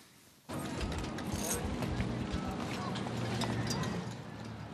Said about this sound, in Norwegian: Eselkjerra er fullastet.